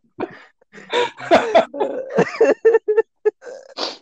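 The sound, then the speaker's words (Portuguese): A loud coughing fit: a rapid run of harsh, raspy coughs in irregular bursts, with strained voiced gasps between them, trailing into a few shorter, choppier coughs. “O riso tira a tosse. Já foi a tosse ao ar.”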